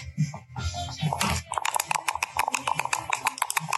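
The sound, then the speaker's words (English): Dice rattle and clatter across a hard surface in a quick burst of sharp clicks and taps, fairly loud, following a moment of low murmuring voices; the dice are rolled to predict a football score, Sheffield Wednesday against Watford, with Sheffield Wednesday going first. “And he basically will roll the dice, and the difference between them is the score for either side.”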